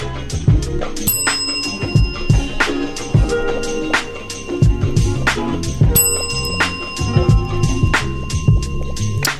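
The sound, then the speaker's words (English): A bicycle bell rings twice, about five seconds apart, each ring bright and lingering, heard over a steady rhythmic music bed with a thumping beat. “Honk your horn for me one last time for the new new while I ring my bell for you twice.”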